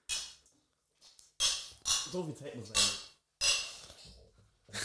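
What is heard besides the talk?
beer glasses clinking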